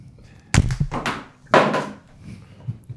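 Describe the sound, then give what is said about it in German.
A mobile phone drops to the floor with a sharp thud, followed about a second later by a second clattering knock as it settles, loud, with no talking. “Auf jeden Fall lag danach das Handy auf dem Boden.”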